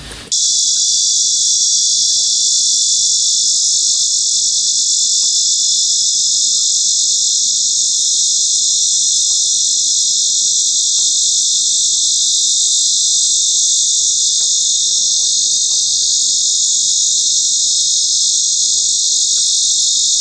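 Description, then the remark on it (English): A coastal lyric cicada (Lyricen virescens) sings close by in one loud, unbroken, high-pitched buzz that drones steadily for the whole stretch, with no talking and only faint background noise beneath it. “Coastal lyric cicada. lyricen virescens. Sounds close.”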